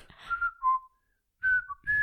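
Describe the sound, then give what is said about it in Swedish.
A woman whistles, imitating a well-known stock bird call: two bright phrases of gliding, falling notes separated by a brief pause, fairly loud, with no talking. “Nu, ska vi se om hon kan vissla.”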